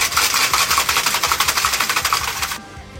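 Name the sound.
cocktail shaker being shaken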